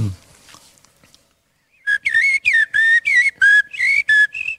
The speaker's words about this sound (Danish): Det är koltrast. Mm. Den er en klassiker. Det er det var en solsort.